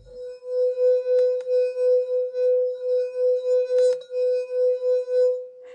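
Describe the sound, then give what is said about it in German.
A wet finger circles a glass rim, drawing out a sustained, ringing singing tone that swells and dips in steady pulses throughout, with a faint brief click or two along the way. “müsst ihr ein bisschen, äh, mit dem äh, Finger reintunken, damit es nass ist. Und dann müsst ihr halt so auf dem Rand so lang gleiten.”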